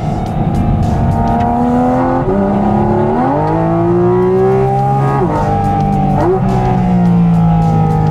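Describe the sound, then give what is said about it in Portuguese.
A sports car engine rumbles loudly and steadily, its deep growl climbing in pitch a couple of times as the driver accelerates and it settles, with no voices. “Olha, olha o ronco do motor, gente. Vou até acelerar um pouquinho agora.”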